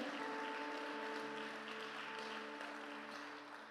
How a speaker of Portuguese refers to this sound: Dá uma salva de palmas ao Senhor, porque Ele é bom.